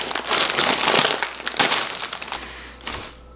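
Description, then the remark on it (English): A crinkly bag of Kroger Private Selection chicken tikka masala flavored ridged potato chips is torn and pulled open, a burst of loud, crackling plastic rustle and crumpling that lasts a few seconds before settling into quieter crinkles and stopping. “Let's get in the chips.”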